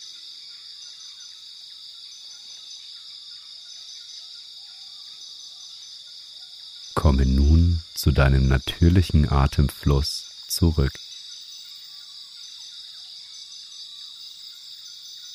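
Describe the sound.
A steady, high-pitched chorus of insects buzzes throughout a rainforest ambience used in a sleep meditation, with occasional faint bird chirps, while a calm voice briefly speaks over it in the middle.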